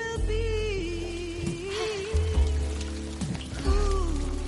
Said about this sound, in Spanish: Llueve.